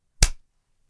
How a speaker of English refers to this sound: Here's the sound of um, a hand clapping effect.